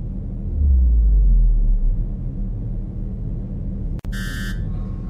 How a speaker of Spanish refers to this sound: En la sala de control suena el teléfono.